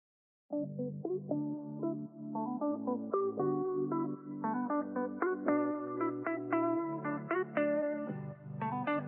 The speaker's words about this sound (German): Aber erstmal hören wir unser cooles Intro.